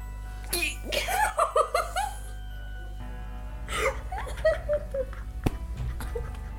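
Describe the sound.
A voice imitates an old man's fit of continuous coughing that sounds like laughter, with two bursts of rapid, rhythmic vocal pulses separated by a short pause.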